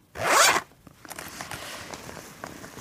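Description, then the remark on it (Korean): The zipper of a study bag is pulled open in one quick, raspy sweep, followed by soft rustling and faint handling noises as the bag is opened. “열어보면 어 ASM, M, ASMR 하는 것 같아.”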